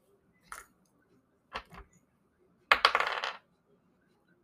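Dice clatter across a table in a few quick bursts: a short rattle, then two small clicks, then a longer tumbling roll that settles. No one speaks.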